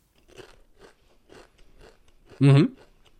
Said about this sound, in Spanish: cuando vuelva a acercarse al micrófono veis que la voz no cambia tanto, pero sí que comienza a silenciar bastante, está puesto en nivel medio, ¿eh? pero veréis que sí que empieza a silenciar bastante el ruido que hace este snack crujiendo en su boca.